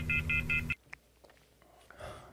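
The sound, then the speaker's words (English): A quick run of four loud, evenly spaced telephone beeps over a low hum, cutting off abruptly into near silence with a few faint clicks and rustles. “This lady has a serious problem with hanging up the phone.”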